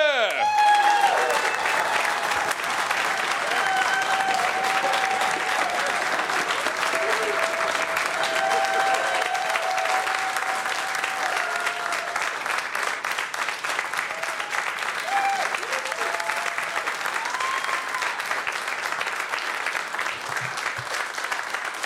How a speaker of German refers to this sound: Ja, einen riesigen Applaus für den wunderbaren Friedemann Weise.